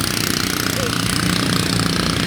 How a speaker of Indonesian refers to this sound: Itu namanya ketinting. Ya lagi di pinggir Sungai Mahakam itu.